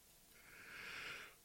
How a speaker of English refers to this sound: Oh my gosh! Sorry for the yawning. I apologize.